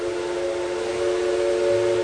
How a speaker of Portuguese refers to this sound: O trem começou a apitar enquanto a menina se penteava.